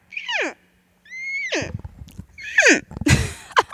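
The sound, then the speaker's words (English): A person imitates an elk cow call: several high, squealing mews sliding downward, repeated in quick attempts, the later ones rougher and breaking into breathy bursts. “you're gonna have to do an elk call. Uh, it's a cow call.”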